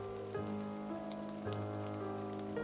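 Steady rain falls continuously, a soft hiss of drops on a surface, mixed with sustained low tonal drones that change pitch a few times. No one speaks.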